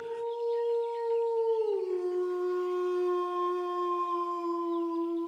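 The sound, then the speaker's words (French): A large wolf with a silver mane, heard from afar and coming closer beside a large meadow, lets out one long, unbroken howl that dips to a lower pitch partway through and then holds steady and strong, ringing out alone with no voices. “Il se rapproche et sort d'un chemin à côté de cette grande prairie, un grand loup à la crinière argentée.”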